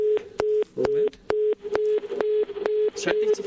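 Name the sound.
telephone busy tone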